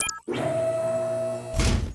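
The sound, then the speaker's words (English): Doors slide open with a steady mechanical whir and hum, then come to rest with a heavy thud. No voices. “Now, open the doors, please.”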